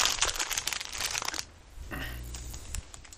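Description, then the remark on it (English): Loud, dense crunching of chili lime pork rinds being eaten, a burst of crackly bites for over a second, then a softer chewing crunch with a low rumble. “Pork rinds. You are correct. chili lime chili lime pork rinds.”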